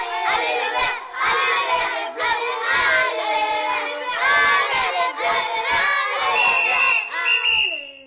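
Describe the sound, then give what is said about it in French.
A loud stadium crowd roars and chants in unison at a rugby match, voices swelling in rhythmic waves with shouts and cheers rising over the din throughout. “c'est un match de rugby.”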